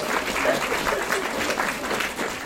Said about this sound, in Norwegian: Så gi henne en varm applaus.